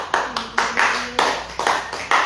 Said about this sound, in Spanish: A su nombre sea la gloria. Palmas a Jesús, hermano.